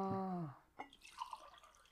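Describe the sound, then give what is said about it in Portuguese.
Liquid sounds as someone drinks water: a short falling gurgle like water glugging from a container, followed by a few soft drips and small splashes, with no talking. “Me tornei um escoteiro, bebi água.”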